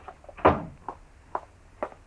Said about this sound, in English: Shut the door, will you?